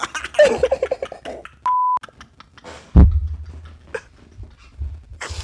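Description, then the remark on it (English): A single short censor beep, a steady mid-pitched tone lasting about a third of a second, cuts in after some vocal noise; a loud thump and low rumble follow. “Beep.”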